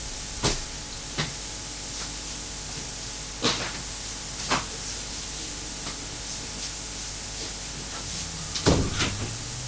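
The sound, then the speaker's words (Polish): Headphones are put down and a door is opened and shut amid a few scattered clunks and knocks, the last thud heavier, all over a steady background hiss with no one talking. “Teraz jest włączony CNRS odłoży słuchawki, otworzy i zamknie drzwi.”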